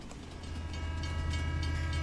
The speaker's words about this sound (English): Here comes the train! Tweet! All aboard, all aboard. This is the train to the 2021.